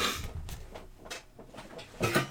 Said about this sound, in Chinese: 好，我挪下椅子啊。